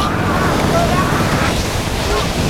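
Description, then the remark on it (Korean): Loud, steady roar of typhoon wind over rough, surging sea waves around a sailing ship near Gwangnokdo, a dense continuous wash of noise with faint whistling gusts, unbroken throughout. “신들은 등주에서 볼일을 마치고 출발하여 다시 항해에 나섰는데 신들이 탄 배가 광록도에 이르렀을 무렵에 갑자기 태풍이 몰아치고 파도가 거칠어져 싸웁니다.”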